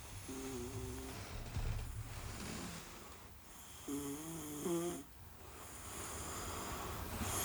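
Close, rumbling snoring repeats in a slow rhythm, with two stronger, nasal snores about three seconds apart over a steady airy background hiss. No one talks.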